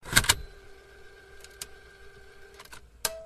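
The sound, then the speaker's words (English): One cassette tape is taken out and another loaded into a player: a sharp plastic clack up front, a few lighter clicks later, and a steady faint mechanical hum running underneath, with no talking. “I got to take the other one out. I got to put it in.”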